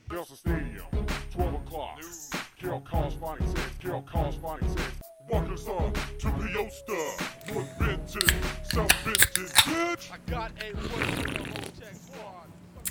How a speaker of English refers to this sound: Ooh, yummy. That, ladies and gentlemen, is the sound of a couple right there. tasty beers being cracked.